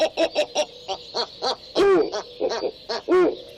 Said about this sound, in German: Das sind jetzt hier die Schneeäulen. Was man hier hat, ist so ein, so ein Zischen, so ein ganz hohes Zischen. Also es denkt man gar nicht, dass so ein Geräusch aus den Schneeäulen kommt.